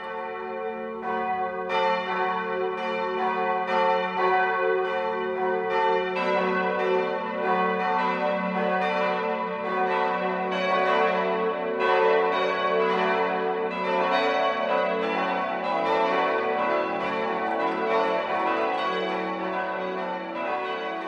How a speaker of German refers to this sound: Bayern 1 präsentiert das 12 Uhr Läuten. Es ist 12 Uhr. Das Mittagsläuten kommt heute aus der katholischen Pfarrkirche St. Bartholomäus in Deisenhofen.